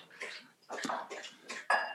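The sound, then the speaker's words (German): A dog laps water in a run of wet, splashy bursts, roughly four in two seconds, moderately loud, with no voices. “Ganz kurz, mein Hund trinkt.”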